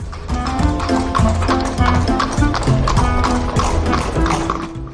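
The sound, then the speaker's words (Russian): A cabman whips his horse and a horse-drawn cab sets off, hooves clip-clopping in a steady rhythm, loud, with a busy layer of other sounds running underneath throughout. “и Кэбмен стегнул лошадь с таким решительным видом, точно ему каждый день приходилось ездить по подобным адресам.”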